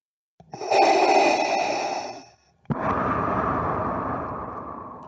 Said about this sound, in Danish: Sådan lyder det, når en af de største skurke i filmhistorien trækker vejret i filmen Star Wars.